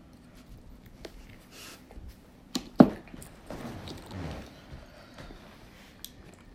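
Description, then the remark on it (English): Sharp cracks and snaps of crab shells being broken apart as people crack and eat crabs during a chat session, one loud crack standing out among smaller crunches, clicks and wet chewing sounds, with no talking. “we still cracking these crabs, y'all.”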